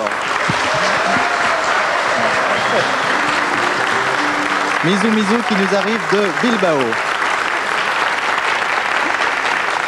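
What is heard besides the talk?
audience applause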